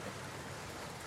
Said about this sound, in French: Je vais vous demander d'être très attentif au son que vous entendez. Cette pluie